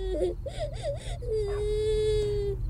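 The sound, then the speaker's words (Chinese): A young girl cries from inside a house, with a few short, wavering whimpers that rise and fall, then one long, steady high wail, heard alone over a low, constant background hum. “那不要紧，你能不能告诉姐姐你为什么哭呢？”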